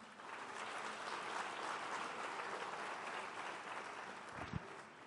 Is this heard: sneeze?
no